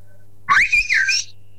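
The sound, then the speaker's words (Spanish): A person whistles a short, warbling phrase imitating a blackbird's call, the pitch sliding up and down for under a second, fairly loud over a faint low hum. “hay veces que un mirlo, yo todo por ahí, que parece que me llama”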